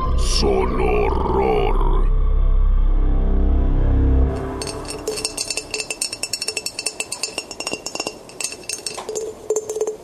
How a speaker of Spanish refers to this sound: El sonido era el de un dedo golpeando el vidrio. Otra vez.